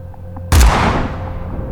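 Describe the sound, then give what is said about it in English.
A single loud shotgun blast cracks out suddenly, sharp and booming, then rings off in a long fading tail against a low steady background hum. “a shotgun blast as loud as an explosion.”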